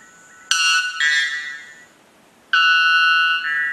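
Two very loud, ringing metallic calls from a bellbird, a cotinga, each a sudden piercing tone as loud as a pneumatic drill that holds for about a second and a half, with a brief pause between them and no talking.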